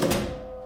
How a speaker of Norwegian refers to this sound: Går eh, ut i entreen, åpner jeg døren. Det er ingen der. Lukker døren